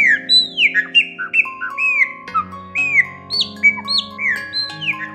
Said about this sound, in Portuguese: Francisco percebeu que sua voz estava sendo encoberta pela cantoria das aves